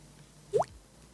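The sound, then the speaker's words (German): A single mouth-made water drip, a quick rising pop like a droplet hitting water, clear against a quiet background with no talking. “Ich kann auch, ich kann ein, ein Tropfgeräusch kann ich machen.”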